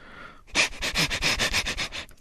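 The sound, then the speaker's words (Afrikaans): A rapid series of about ten short, breathy sniffs in a steady rhythm, acting out a leopard in the bush smelling zebras and giraffes, fairly loud with no talking over them. “Ure en ure wag hy luiperd en toe uiteindelik ruik hy iets bekends.”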